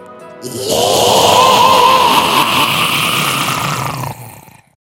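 A loud, sustained scream of a witch with leathery wings in a told story, lasting about four seconds, harsh and raspy with wavering, warbling pitch contours, rising abruptly and cutting off at the end, with no talking over it.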